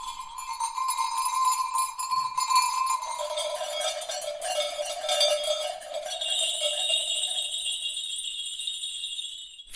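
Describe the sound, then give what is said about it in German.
Sleigh bells of the kind once fitted to horse-drawn sleighs in winter ring continuously and fairly loudly, a bright metallic jingling with shimmering overtones that shifts in pitch midway and keeps going steadily for the full length, with no voices. “Und deswegen sind diese Rollen zum Einsatz gekommen am Schlitten.”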